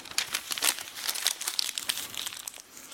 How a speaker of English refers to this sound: Seven years, I held on to one sheet of paper before 300 of you I just crushed my 11 year old brother's dreams on TV, essentially.